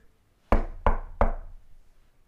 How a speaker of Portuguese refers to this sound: Quem é que está a bater à porta da topeirinha?